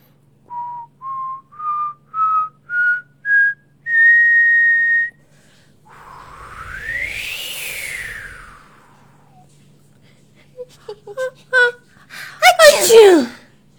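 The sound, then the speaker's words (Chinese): A voice whistles a rising run of six short notes and one long held tone, then imitates the north wind, the North Wind sister of a children's story, with a breathy, swelling whoosh, followed by a couple of sharp sneeze-like bursts: the big sneeze of the little ant and Aunt Spider in the story. “这时，北风姐姐又开始了。春天到，吹口哨哦！”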